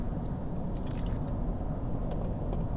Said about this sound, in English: Just excuse me for a second, I've got to have a sip of water.